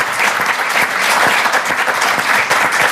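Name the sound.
thunderous applause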